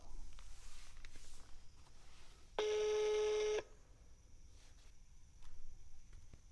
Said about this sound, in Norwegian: Nå tenkte jeg bare at jeg skulle ringe dem, Sånn om de tar telefonen